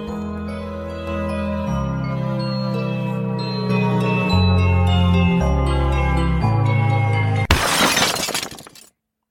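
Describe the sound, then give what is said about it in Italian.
Sustained, droning musical chords play for several seconds, then a sudden loud shatter of breaking glass as a mirror bursts cuts in near the end and quickly fades to silence. “Improvvisamente lo specchio esplode, una scheggia mi si conficca nel diaframma.”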